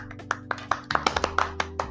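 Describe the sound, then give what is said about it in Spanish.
A single person claps hands in a steady, fairly quick rhythm, about ten sharp claps over two seconds, with a low steady hum or music underneath. “llegó tarde ah, ese segundo aplaudí yo solo primero y después.”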